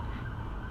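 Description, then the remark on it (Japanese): Faint emergency sirens of a fire engine and an ambulance wail from outside, steady, their tone held over a low background rumble, with no one speaking. “いろいろあの消防車やら何やらが救急やらがね”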